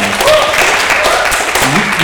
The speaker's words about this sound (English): You, if you help a stag team, could you just raise your hand? Just hey, everyone, give a big round of applause.